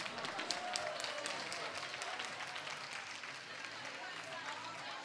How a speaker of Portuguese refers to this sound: Palmas.